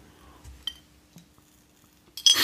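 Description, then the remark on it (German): A glass Flens (Flensburger) beer bottle is opened and handled: a couple of light, sharp clinks in near silence, ending in a louder burst of clattering glass-and-handling noise. “Das war ein, ein podcast-verträgliches Flens öffnen.”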